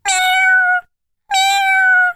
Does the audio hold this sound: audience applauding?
no